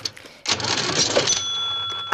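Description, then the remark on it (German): A cash register rings up a sale of books: a burst of mechanical clatter and rattling followed by a sustained bright ringing tone, fairly loud, with no voices. “Huh, meine, Klasse, äh, meine Kasse klemmt.”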